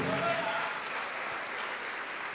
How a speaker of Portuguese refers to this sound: Vamos aplaudir ao nome de Jesus.